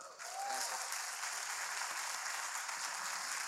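Steady applause from a crowd, a dense wash of clapping that starts abruptly and holds at an even, fairly loud level throughout, with no voices standing out.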